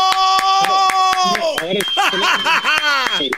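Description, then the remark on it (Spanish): A steady run of sharp hand claps, about four per second, loud, mixed with laughing and chattering voices throughout. “hay, que aplaudirle, hincándonos, te digo.”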